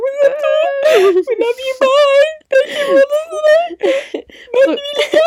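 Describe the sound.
Someone fakes a crying fit, voicing high, wavering whimpers broken by breathy, sobbing gasps in a steady, exaggerated stream for several seconds.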